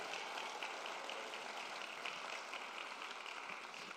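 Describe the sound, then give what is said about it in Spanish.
A crowd of believers applauds the Lord steadily, dense clapping for several seconds at an even, sustained level with no voices standing out. “Dale un aplauso, vamos, todo el que lo crea, que le dé un aplauso al Señor.”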